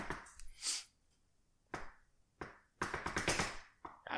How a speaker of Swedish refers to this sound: ja, jag hör att du knackar.